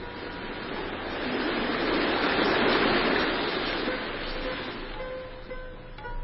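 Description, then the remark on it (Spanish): Steady rushing of flowing river water, a continuous broad wash that swells slightly louder in the middle and eases off toward the end, with no voices. “Ya en muchas ocasiones había oído las voces, el río, pero hoy sonaban diferentes.”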